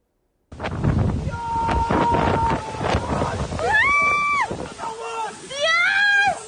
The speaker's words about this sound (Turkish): İspanya'yı Gloria fırtınası vurdu. Dev dalgalar şehirleri ele geçirdi.